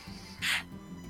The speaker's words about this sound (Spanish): Acá está el ruido mate, escucha, escucha ese ruido.